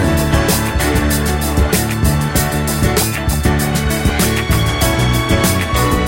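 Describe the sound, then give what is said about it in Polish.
A full, loud orchestral soul recording by the orchestra of a legendary American soul singer plays throughout, with a steady driving beat, deep bass line and lush layered instruments, no voices heard. “To, co słyszymy, to jego zawsze genialnie brzmiąca orkiestra.”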